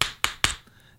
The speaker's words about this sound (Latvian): Jā, tur var dzirdēt, ka viņas skan kā divi akmeņi, kas nozīmē, ka viņi ir aizvērti, viņi ir pilni ar ūdeni, viņa dzīve. Aizvērtas austeres, ne, bet svaigas austeres pamatā uh, ir tas, ka viņi ir aizvērti un pilni ar ūdeni.